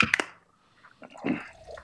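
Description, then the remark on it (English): A quick, sharp crack as a beer bottle or can is opened, followed after a short pause by liquid splashing and gurgling as the beer is poured. “he says we open a beer.”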